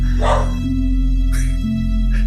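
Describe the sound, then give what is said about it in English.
A dog barks three times, with short gaps between the barks, over a steady low electrical hum. The barks are moderately loud. “My dog already no, hates it.”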